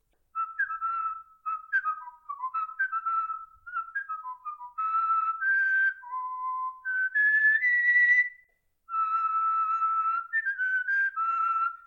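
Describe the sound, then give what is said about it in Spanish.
A person whistles a film character's musical theme alone, with clear sustained notes rising and falling in pitch across phrases, fairly loud, with a brief pause before the final phrase. “A ver, Kylo Ren, ¿cómo es el tema? Te lo silbo”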